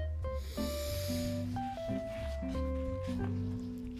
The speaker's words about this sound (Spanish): Inhalamos profundo.